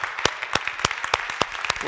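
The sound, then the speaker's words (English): Applause from a small group, a steady patter of overlapping claps with a few sharper, louder ones standing out, moderately loud throughout. “Uh, I applaud everyone. If I applaud.”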